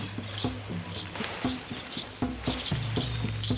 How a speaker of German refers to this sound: Der Kenianer steigt in Baobab-Bäume und erntet deren Früchte. Auf diesem Baum ist einiges zu holen, wie das anhaltende Rascheln verrät.